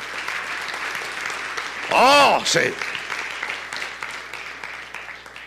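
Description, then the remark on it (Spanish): Steady applause from a church audience, given to God during a sermon, fills the whole stretch, a dense wash of clapping, while a voice briefly calls out over it partway through. “Oh, dale el aplauso a Dios, Él se lo merece.”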